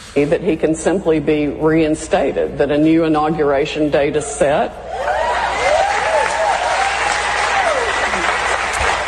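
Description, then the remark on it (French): Lawyer Sidney Powell speaks loudly for several seconds, then a jubilant crowd bursts into sustained applause with cheering and rising whoops, the dense clapping continuing steadily to the end. “Et voici ce qu'elle avait à dire devant la foule en liesse.”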